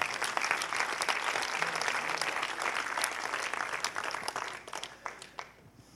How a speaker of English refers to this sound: Come on, give the Lord a hand clap with me.